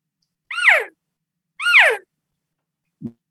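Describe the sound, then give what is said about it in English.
Two higher-pitched calls imitating a younger cow elk, made on an elk caller, each a short bright mew that rises then slides down, with a brief pause between, followed by a small low thump. “Younger cow,”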